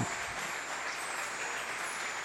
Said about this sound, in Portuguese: Fique de pé no seu lugar e dê sua melhor adoração através das suas palmas em nome de Jesus. Aleluia!